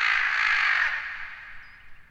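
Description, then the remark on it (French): A crow lets out a single loud, harsh caw, drawn out for about a second before trailing off into a fading, raspy tail, with no other sounds around it. “Tiercelin serra son fromage et lança un croa retentissant”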